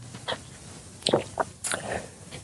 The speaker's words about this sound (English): one sec, I'm going to drink some water here.